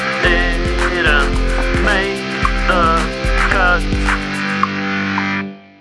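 A short, loud electronic jingle for the Tenkstedt segment: a buzzing, distorted drone under a steady thumping beat, with warbling synth sweeps on top, lasting about six seconds before cutting off abruptly.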